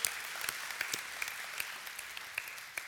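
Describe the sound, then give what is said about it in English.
A church audience applauds together during a service, giving the Lord a hand: a steady wash of many hands clapping at moderate volume, with sharper individual claps popping out of the dense sound throughout. “Can we give the Lord a hand for what he's about to do?”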